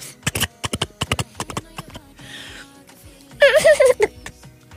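Horse hooves clip-clop in a quick, uneven run of sharp knocks, followed by a short rustling burst and then a loud, high, wavering cry near the end.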